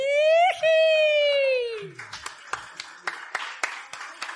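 A long, high whooping cheer rings out, then applause breaks in: a dense crowd patter with sharper individual claps landing in a steady rhythm, roughly three per second.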